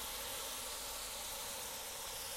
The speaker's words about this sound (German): Da werden wir gleich so ein paar Bilder hochladen und dann könnt ihr das alles sehen, wie das toll hier brutzelt und ja, das Bauchfleisch sieht schon echt gut aus